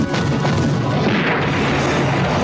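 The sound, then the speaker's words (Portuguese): A loud Power Bazooka blast, fired on command, erupts into a dense, roaring explosion that rumbles on at full strength for a couple of seconds, with crackling debris-like noise and no voices. “Munição! Power Bazooka! Na mira! Muito bem. Fogo!”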